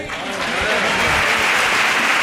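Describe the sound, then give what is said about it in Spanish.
Sustained applause from an audience paying tribute to a colleague leaving the carnival world, a dense, steady clatter of many hands clapping at once, loud, with no voices standing out. “Así que, por favor, un fuerte aplauso.”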